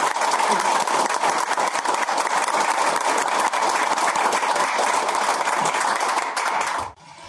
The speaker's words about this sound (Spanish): Entonces les pido un minuto de silencio y un aplauso para esta persona. Le demos un fuerte aplauso para donde quiera que esté.